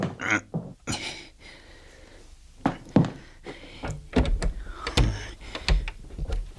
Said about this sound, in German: Da drehen wir mal den Hahn richtig zu.